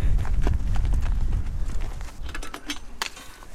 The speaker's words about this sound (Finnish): Päästetäänkö hevonen ulos? Joo. Nyt pääsee hevoset tänne auringonpaisteeseen.